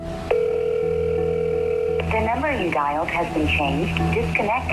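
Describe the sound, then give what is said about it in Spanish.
A steady, buzzy telephone tone signaling the disconnected phone line of a contractor in Miami-Dade County sounds for nearly two seconds, then a recorded voice begins speaking over a low, constant background hum. “su teléfono sonó desactivado, su local está cerrado”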